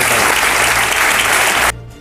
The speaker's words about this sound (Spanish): en el nombre de España, decía Pedro Sánchez, y sin parar de aplaudir, puestos en pie los miembros del Comité Federal.